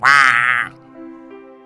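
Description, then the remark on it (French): A duck answers a farmer's call with a single loud, nasal quack, followed by a softer, trailing honk that fades out. No talking. “Ça va le travail criait le fermier et le canard répondait”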